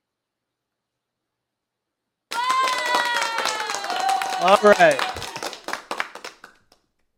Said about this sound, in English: Would you kind of give me a, a, a applause or something if you can see the screen?